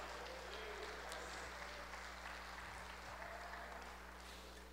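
A church audience applauds for Jesus, a steady dense wash of clapping that holds at an even level for several seconds, with a low electrical hum running underneath and no speech.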